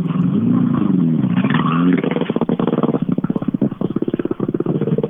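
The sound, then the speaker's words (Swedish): A rally car engine roars loudly as it drives in, revving steadily upward, then breaks into a rapid, stuttering throb of pulsing engine bursts. No one speaks. “Och nu kommer en intressant ja, bil in.”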